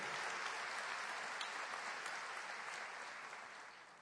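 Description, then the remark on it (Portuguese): An audience applauds steadily in praise of God, a dense wash of many hands clapping at an even level for several seconds before starting to taper off slightly near the end. “Você pode aplaudir aquele que vive reina para sempre?”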